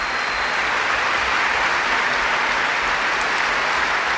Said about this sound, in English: They're elevating the stretcher, and now they're going to move the stretcher and bring Cam here right to left, and another round of applause breaks out.